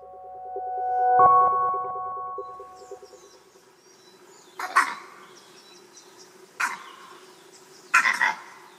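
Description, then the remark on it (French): A vervet monkey's eagle alarm call: three short, sharp, harsh barks spaced a second or two apart, fairly loud, following a brief steady tonal hum at the start. “La solution, c'est que le premier, c'était attention à l'aigle, le deuxième, c'était attention au jaguar.”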